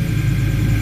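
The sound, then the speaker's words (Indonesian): The engine of an Xpander car rumbles as the car drives out of a garage, a steady, loud low drone with no speech over it. “ini suara mobil kedengaran bentar dulu kita stop dulu Oke, kita balik lagi karena tadi ada sedikit gangguan dari mobil expander yang keluar dari garasi.”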